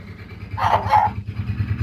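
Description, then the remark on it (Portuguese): A quick pair of dog barks, moderately loud, rising over a steady low engine-like rumble that continues throughout. “quem tá é que tá latindo pro cachorro?”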